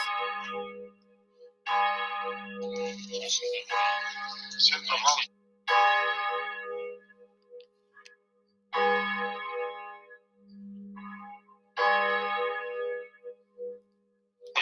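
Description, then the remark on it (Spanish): Church bells ring out in a steady peal, each loud strike leaving a long shimmering hum before the next, with President Volodymyr Zelensky speaking faintly underneath. “Vamos acelerando el paso y de fondo escucharemos al presidente Vladimir Zelensky a la par de este repique de campanas.”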